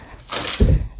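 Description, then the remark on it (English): A cat being lifted off a desk: a brief burst of rustling and light clattering, then a soft, heavy thump about halfway through. No one speaks. “If you heard a bunch of noise in the background just then, it was uh, me getting the cat off my desk.”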